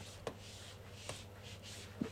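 Soft, scratchy swishes of feet gliding and sliding across a floor while doing the moonwalk, a few drawn-out scrapes with light thumps between them, faint, with no talking.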